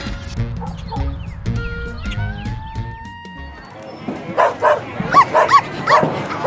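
A dog barks several times in quick succession toward the end, loud, after a stretch of rumbling background noise and a rising, siren-like whine.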